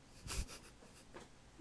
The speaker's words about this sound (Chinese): 呼吸声太大声。